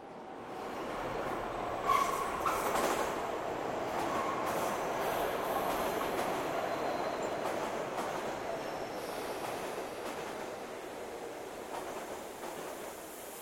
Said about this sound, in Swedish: Genom tunnelbanan som går under Östermalm kommer emellanåt ett silverfärgat tåg skramlande. Det finns bara ett sådant tunnelbanetåg i Stockholm. Alla andra är gröna eller blå. Det silverfärgade tåget går bara sträckan Fruängen, Mörby, Ropsten.